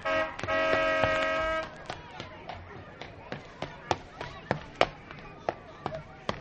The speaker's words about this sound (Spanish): Sí, es mamá la que toca el claxon. Ya la vi.